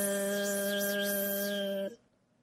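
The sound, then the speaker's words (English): A steady, droning buzz of bees at a hive in a garden hums loudly for about two seconds with a slight warbling shimmer on top, then cuts off abruptly into near silence. No one speaks. “What's that buzzing sound? asks Peppa.”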